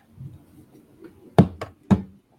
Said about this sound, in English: I can I can hear him. I got I got to mute him cuz I can hear him typing.